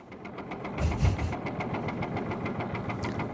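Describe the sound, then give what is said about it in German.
A vintage tractor engine chugs steadily with a regular, knocking rhythm, briefly swelling louder near the start before settling back into its even idle-like beat. “Schöner Oldtimer-Traktoren-Sound.”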